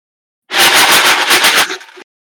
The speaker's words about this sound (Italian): No, in realtà non si vede, ma è il rumore di un, una quantità infinita di meeple dentro una zucca di plastica di Halloween.